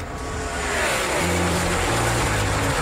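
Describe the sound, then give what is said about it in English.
A loud race car engine roars and revs, its pitch stepping upward in quick stages as though shifting through gears, with a dense, steady mechanical rumble throughout and no voices. “Start your engines.”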